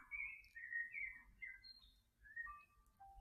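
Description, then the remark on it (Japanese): Bird chirping plays continuously in a background music track, a string of bright whistled tweets and trills at moderate volume over a soft low rumble, with no voices. “この鳥のさえずり、うんとね、ピアノかなピアノの音をね、あの、選びました。”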